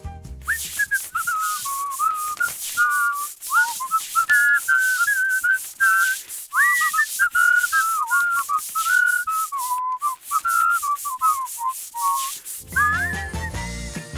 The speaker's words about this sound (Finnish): Seuraava jenkka on puolestaan saanut alkunsa tapiseeraamisen yhteydessä